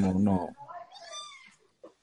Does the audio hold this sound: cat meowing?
yes